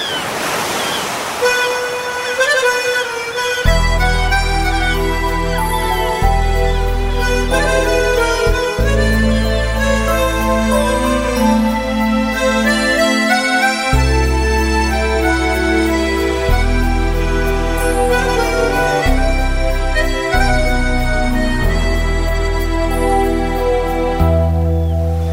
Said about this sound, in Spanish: Así que escuchamos esta canción, …, que tiene letra de … y música de …